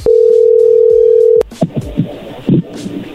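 A loud, steady single-pitched telephone tone from a call that was hung up or cut off hums for about a second and a half, cuts off with a click, then gives way to muffled bits of talk and line noise.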